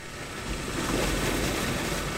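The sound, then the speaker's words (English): An old water well pump, put into service in 1946, runs at a well that is about to go dry. It makes a steady, unbroken mechanical drone: a low rumble mixed with broad hiss that holds at an even loudness throughout, with no voices. “Oh, this is a pump that has uh, was put into service in 1946.”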